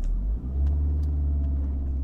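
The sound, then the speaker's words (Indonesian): A car engine hums steadily while driving from Malang to Surabaya on the toll road on a Thursday at 7 pm, a deep continuous rumble with faint road noise and a slight swell in power partway through, heard from inside the vehicle with no talking. “Kamis, jam 7 malam. Suryadi mulai naik mobil dari Malang.”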